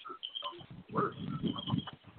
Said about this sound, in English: Hold on. I don't know what that is. What that is. But uh, um, it's definitely some type of feedback.